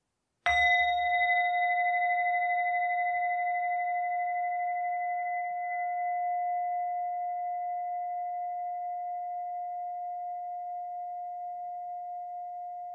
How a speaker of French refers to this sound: À présent, cette pratique se clôture par ce son de bol de méditation.